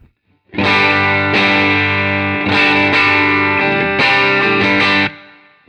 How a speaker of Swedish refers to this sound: Det är stallmicken. Fan vad fint. Och eh, allting på fullt på gitarren och och eh, lite dist och en aning reverb-driven.